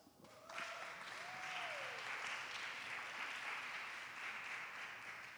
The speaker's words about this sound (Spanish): Ahí va un aplauso.